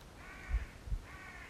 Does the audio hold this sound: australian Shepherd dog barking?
no